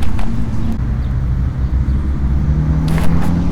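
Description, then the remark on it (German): A car rolls by, its heavy low engine rumble droning steadily throughout, with a brief hiss of road noise near the end and no one speaking. “einige Autofahrer sind echt mega assig, ne? Ähm, die hören so laut Musik.”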